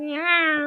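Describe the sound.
A person imitates a cat's meow: a single sustained, nasal mew lasting under a second, clear, with no other sounds around it.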